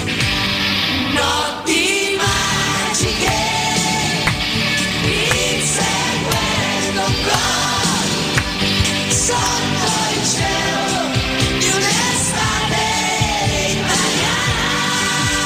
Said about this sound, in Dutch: Ja, en de titelsong van het WK 90, gehost door Italië,